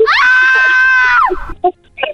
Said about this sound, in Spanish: Ese grito